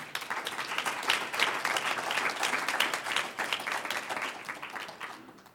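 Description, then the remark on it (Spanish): An audience at a church service breaks into steady applause for the Lord, many hands clapping in a dense, continuous patter that holds strong for several seconds before slowly thinning toward the end. “Un aplauso al Señor.”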